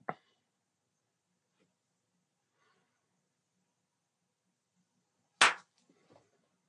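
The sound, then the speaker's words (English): Two sharp hand claps, one at the start and a louder one about five seconds later, separated by near silence, with faint soft rustling after the second. “So uh, sound clap, and then you answer from there.”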